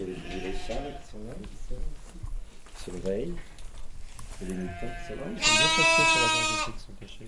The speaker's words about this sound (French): c'est des moutons, tu vois. jeunes moutons.